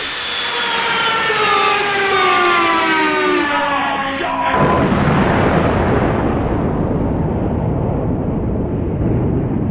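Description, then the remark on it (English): A private jet, flown in a demonstration by guest pilot Takuma Sato, roars overhead, its engine whine sliding downward in pitch as it passes, then giving way to a loud, steady rumbling roar that slowly fades. “Let's move on to our new generation under private jet, which, if you look overhead now, you will see being demonstrated by our guest pilot, Takuma Sato.”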